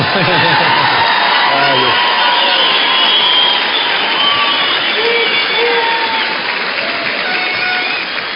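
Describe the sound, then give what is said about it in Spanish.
An audience applauds and cheers loudly without pause, dense clapping mixed with shouts, whoops and overlapping voices, holding steady for about eight seconds before easing slightly at the end. “Mientras usted sigue aplaudiendo, yo sigo cantando.”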